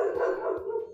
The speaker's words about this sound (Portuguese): Desde já, já peço desculpas pelo cachorro do vizinho que está latindo. As pessoas deveriam treinar os seus cachorros para latir menos.